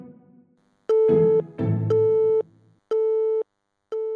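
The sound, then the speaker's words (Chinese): A telephone busy tone after a hang-up: four steady, mid-pitched beeps, each about half a second with equal gaps between them. A low rumbling clatter sits under the first two beeps. “当对方已挂断电话。”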